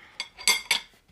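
Three quick metallic clinks of cutlery against a plate as someone eats, evenly spaced, with bright ringing overtones and no talking.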